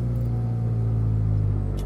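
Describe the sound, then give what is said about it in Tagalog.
A car engine rumbles steadily as someone leaves the house and drives to the office, a deep continuous drone that holds level through the short stretch. No one speaks. “Hindi sa pinansin nito hanggang sa lumabas ng bahay, sumakay sa kotse at pumasok sa opisina.”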